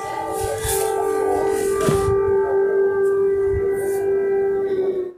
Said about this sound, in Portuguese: Era tipo 5 da manhã, já estava a sirene já de bombardeio.